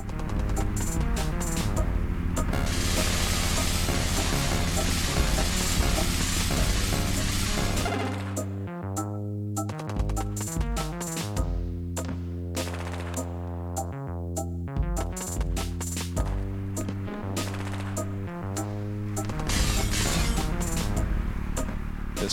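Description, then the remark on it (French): Loud, driving instrumental video game music: a dense, crashing wall of sound for several seconds, then a punchier section of rhythmic, stuttering chords and steady bass, with no voices. “au niveau musical, on a tenté de, de s'inspirer des personnages. Donc là, ça, c'est la, pièce qui s'appelle Guerre”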